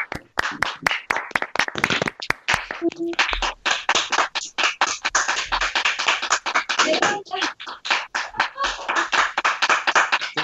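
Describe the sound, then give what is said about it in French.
People clap from their windows at 8 pm, a few sharp individual claps at first, then many hands join into dense, continuous applause with occasional brief voices mixed in. “Il est 20h maintenant là Ouais, j'applaudis. Oui, ça y est, les gens sont à la fête.”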